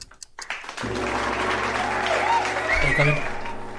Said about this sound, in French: Bravo Applaudissements. Bien joué.